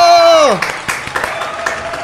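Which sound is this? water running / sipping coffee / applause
applause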